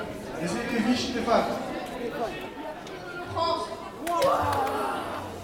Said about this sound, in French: non, vous ne vous trompez pas. Ce que vous entendez, c'est bien le tirage au sort pour l'organisation d'un tournoi de football. Mais pas n'importe quel tournoi, celui de l'Euro 2016 des quartiers.